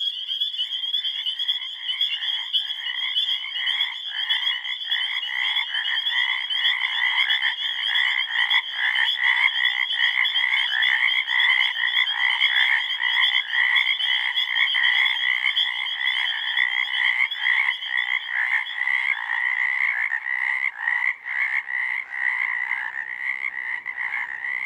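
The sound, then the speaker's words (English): A dense chorus of frogs croaking continuously, with rapid pulsing calls overlapping in a steady, loud wall of sound and no voices. “Frogs turned this protective valve into a singing reed.”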